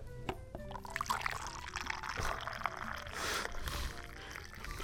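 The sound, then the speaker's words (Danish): Corona beer pours steadily for a few seconds, a continuous gurgling splash with fizzy hiss and some hollow glassy ringing as the liquid sloshes. No one speaks. “Han hælder pur ren corona direkte ned i, kro- ned i kroppen nu.”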